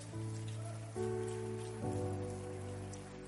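A crowd claps steadily for the Lord, a dense patter of applause that holds from start to finish, with sustained keyboard chords shifting twice beneath it. No one speaks.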